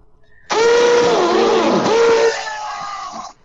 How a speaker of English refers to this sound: So I am drilling holes.